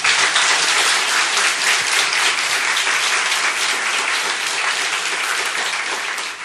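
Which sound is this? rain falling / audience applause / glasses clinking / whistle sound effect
audience applause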